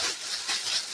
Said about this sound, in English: right now I'm flouring these pork chops, so if you hear some roughly in the background, that's what I'm doing. I'm doing two things at once, people.